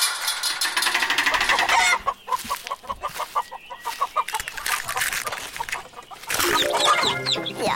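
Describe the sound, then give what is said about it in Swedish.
Hens clucking and squawking in a busy hen yard, a steady chorus of overlapping calls, with a rooster crowing loudly toward the end. No one speaks. “och vi har precis varit inne i hönsgården. Vi kan väl lyssna igen på hur det låter då?”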